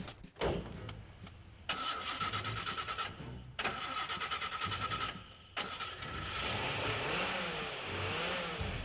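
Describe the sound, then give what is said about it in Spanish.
A car starter cranks in several strained bursts before the engine catches, then the motor revs and rises in pitch as the car pulls away, loud, with no voices. “Después de tres cuadras abandonó el coche con los dos cuerpos regresó caminando tranquilamente a su casa.”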